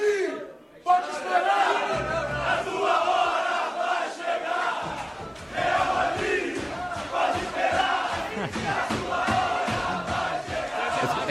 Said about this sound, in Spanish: en la celebración, en lugar de centrarse mm. en, celebrar la Libertadores, los jugadores se vieron cantando Real Madrid, tu, tu hora va a llegar.